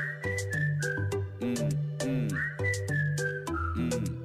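A bright whistled melody glides and steps between notes over a steady musical backing with rhythmic drum hits, the whistling clear throughout.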